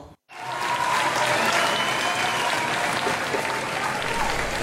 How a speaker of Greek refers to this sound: Και τόσα καλά τόσα χειροκροτήματα. από όλο τον ε, κόσμο.